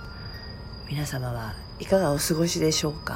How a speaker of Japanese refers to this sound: すっかり気温も下がりセミの鳴き声からリンリンリンとスズムシかなの秋の声に BGM が変わった深夜